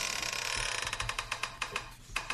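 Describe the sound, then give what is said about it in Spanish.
An old mattress creaks and squeaks in a quick, steady rhythm, about a dozen short scratchy bursts over soft low thumps, with no voices. “Pues a veces los colchones viejos, ¿no? Los colchones. Este, estamos, estamos hablando de un colchón.”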